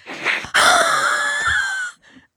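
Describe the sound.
A person gives a strained, drawn-out wheezing squeal, imitating the noises of mating turtles, loud for about a second and a half after a short breathy lead-in.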